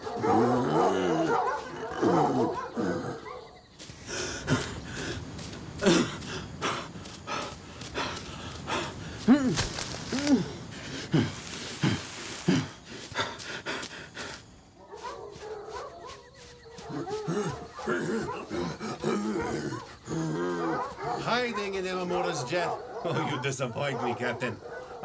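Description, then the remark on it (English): Several dogs, being held in check, bark and pant excitedly in loud, rapid bursts, with harsh breathy huffs mixed in, while voices talk before and after the commotion. “Slow down, Mulok. Hold the dogs in check.”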